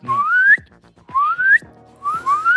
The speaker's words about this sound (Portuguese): Eu sei assobiar pra fora e para dentro.